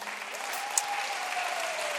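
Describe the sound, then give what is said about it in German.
Steady applause from a crowd for the people being baptized, a dense wash of clapping that holds at an even level throughout, with a faint tonal whistle-like line running underneath and one brief sharp click partway through. “Und darf ich euch andere um einen fetten Applaus bitten?”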